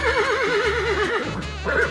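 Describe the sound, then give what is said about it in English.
A horse whinnies loudly, a long quavering neigh whose pitch trembles rapidly up and down for about two seconds, with no voices around it. “He was riding his bicycle a few days earlier in the countryside when he saw a beautiful horse by a wooden fence next to the road.”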